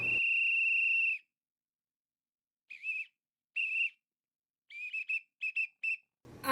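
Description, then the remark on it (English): A shrill whistle is blown: one long sustained blast, then a short pause, two short toots, and a quick run of four or five rapid chirping blasts, with no voices. “Can I keep the whistle though?”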